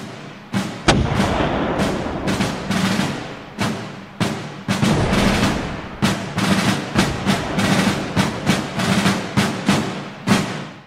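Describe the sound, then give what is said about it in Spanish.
Rapid, overlapping crossfire gunshots crack back and forth with heavy booming cannon blasts mixed in, heard in the city of Strasbourg on 25 April 1792 as war with Prussia and Austria begins; a dense, chaotic barrage of loud impacts with irregular rhythm and no voices. “Unos pocos días después, el 25 de abril de 1792, Estrasburgo recibe la confirmación de guerra por parte de Prusia y Austria, y desde esa misma mañana comienzan a sentirse en la ciudad los primeros disparos cruzados y cañonazos.”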